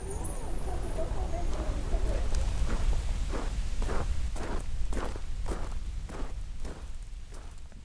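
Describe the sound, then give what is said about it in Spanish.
Steady footsteps of a person walking to a confectionery shop at an even pace, about a dozen crisp steps on a hard surface, with a low ambient rumble and faint murmuring voices at the start. “Estoy yendo a ver si puedo hablar con Rogelio y Natalia, dueños del lugar.”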